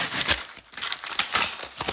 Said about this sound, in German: Okay, wir öffnen direkt mal hier dieses kleine, also dieses, diese, ähm, dieses Geschenk hier, das dabei ist. Okay, wir öffnen das.